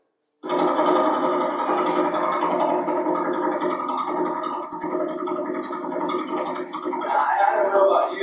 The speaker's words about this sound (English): when they aimed the radio telescopes at the Vela Pulsar, this is what they heard